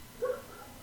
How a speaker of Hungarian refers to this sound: elnézést a rengeteg kutyaugatásért, ami valószínűleg behallatszik. Ez, ez egy ilyen utca.